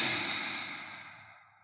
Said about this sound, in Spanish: Van a inhalar por la nariz. Y exhalen por la boca como si tuvieran que empañar un vidrio. Inhalo por la nariz. Exhalo por la boca.